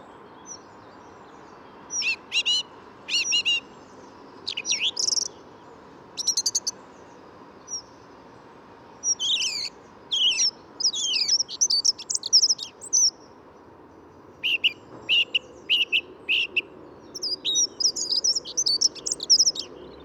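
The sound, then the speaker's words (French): A song thrush on the left and a dunnock on the right sing at once, the thrush's repeated, spaced phrases alternating with the dunnock's fast, warbling trills, both clear over a soft outdoor background hum. “La grévicienne est à gauche, l'accenteur mouché à droite.”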